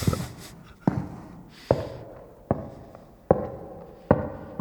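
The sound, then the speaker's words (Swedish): Six footsteps on a wooden floor in a church at an unhurried, even pace, each a hollow thud with a short resonant decay, with no voices. “Och sen var det stengolv eller? Eller trägolv? Nej, trägolv är det.”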